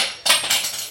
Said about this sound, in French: c'est correct, c'était un bruit de cuillère